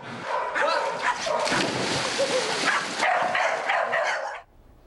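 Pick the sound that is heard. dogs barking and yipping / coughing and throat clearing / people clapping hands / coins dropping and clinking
dogs barking and yipping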